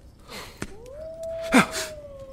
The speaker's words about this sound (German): Das ist das erste Mal, dass ich diese Wölfe höre. Sie müssen ganz in der Nähe sein.